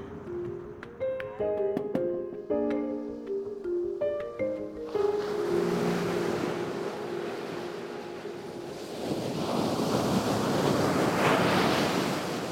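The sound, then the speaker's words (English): Waves break on the undeveloped coast of Canaveral National Seashore in a steady roar of surf that swells louder toward the end, preceded by a few seconds of soft melodic music. No one speaks. “I decided to come here to Canaveral National Seashore because I wanted to see for myself how sea turtles are faring.”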